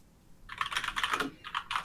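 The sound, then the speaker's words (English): Quick, clattering keystrokes on a computer keyboard in two bursts with a short pause between, fairly quiet, with no voices. “Oh, you're typing.”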